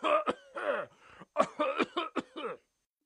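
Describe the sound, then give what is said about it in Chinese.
A voice imitates Grandpa Elephant in a story, leaning against a tree trunk and coughing worse and worse: a string of about seven or eight loud, rough, voiced hacking coughs in quick uneven succession, with no talking, then silence. “可是象老爹却靠在树干上，咳嗽的越来越厉害了。”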